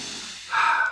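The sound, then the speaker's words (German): A single sharp sniff at the packaging of a board game being unboxed, a short breathy inhale that rises suddenly after a soft hiss of air and holds for about half a second before fading. No one speaks. “Ich kann auch nochmal an, an, der, an der Verpackung mhm. riechen.”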